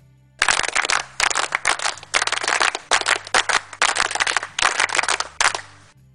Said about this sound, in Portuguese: Nossa, vou aproveitar e utilizar pela primeira vez o áudio das palmas escoteiras, pois eu acredito que o nosso pai merece.